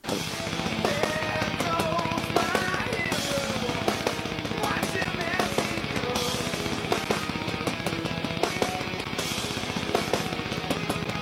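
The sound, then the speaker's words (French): A bass drum played with a triple pedal pounds out an extremely fast, relentless stream of kicks, almost like machine-gun fire, driving loudly beneath a full rock band with distorted guitars and crashing cymbals. “Il a créé la première triple pédale au monde.”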